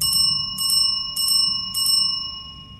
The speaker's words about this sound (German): hört ihr ein rasantes Klingeln als wäre es von einer Küchenglocke oder einer Rezeptionsklingel.